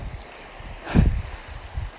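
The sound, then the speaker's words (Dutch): A single heavy splash as a dog leaps into water after a thrown stick, loud, with a rushing burst that quickly fades into lapping water and faint outdoor ambience. “Want die staat, horen jullie dat ook? Ik weet niet, een grote sprong in het water.”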